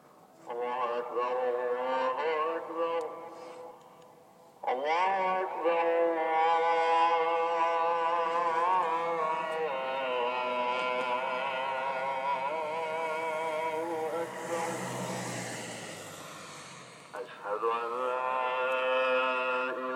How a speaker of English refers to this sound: My sound was the calling of prayer. It was recorded at 3:34 p.m. on Sunday.